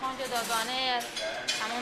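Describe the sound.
Dishes clink a couple of times as dried plates are put away in their places, short bright knocks sitting under a steady voice that keeps talking throughout.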